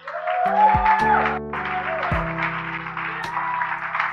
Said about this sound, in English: One more time. Give him a mighty clap up.